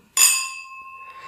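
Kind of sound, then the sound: household object, whisky glasses clinking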